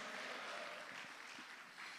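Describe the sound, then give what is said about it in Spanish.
A church audience claps loudly for the King of Glory, the many overlapping hand claps blending into a dense, steady roar of applause that holds without a break for about two seconds, with no voices. “Vamos, si usted lo cree, le da palmas fuerte al Rey de la Gloria.”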